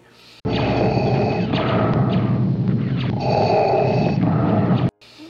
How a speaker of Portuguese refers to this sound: respiração do Vader.